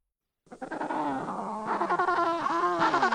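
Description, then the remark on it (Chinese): High, wavering calls of penguin chicks overlap one another in a continuous, bleating chorus, with rising and falling pitch and a steady, fairly loud level. “听，这是什么声音呀？原来啊，是小企鹅们。”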